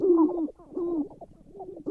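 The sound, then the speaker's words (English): Sharp-tailed grouse calling on a lek at Lostwood National Wildlife Refuge in North Dakota: a run of low, hollow cooing hoots overlapping with softer clucking chatter, steady, with no voices present. “With oil and gas drilling and the conversion of grasslands to agriculture, habitat for sharp tailed grouse is becoming scarcer and more fragmented.”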